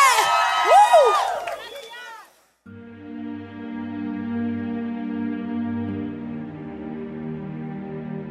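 A short burst of shrill, excited shouting and whooping from a concert audience, about two seconds long, cuts off abruptly and gives way to steady, loud band music.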